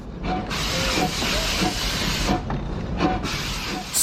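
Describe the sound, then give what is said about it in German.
A steam engine hisses steadily in broad, rushing bursts, with a few brief dips and faint mechanical rattling underneath. No one speaks. “Wie weit hat es denn gebracht mit der rechnenden Dampfmaschine?”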